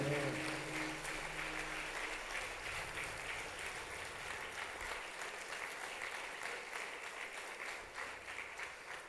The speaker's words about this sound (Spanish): Gracias Jesús. Dale un aplauso de adoración a Él y de alabanza.